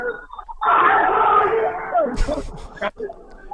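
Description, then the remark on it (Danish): A loud roar of Silkeborg football fans, a sustained crowd of yelling and chanting voices swelling in at once, with a few sharp bursts and thumps near the end. “Jeg havde aldrig troet, at Silkeborg-fans skulle larme så meget.”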